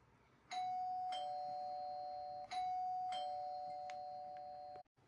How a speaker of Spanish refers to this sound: se dijo muy satisfecha de sí misma al apretar el botón del timbre.